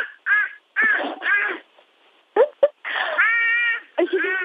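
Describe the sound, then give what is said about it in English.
A baby boy imitates a crow, letting out a series of loud, harsh caws in uneven bursts, some stretched and wavering. “I really can't tell if that's a crow or a baby.”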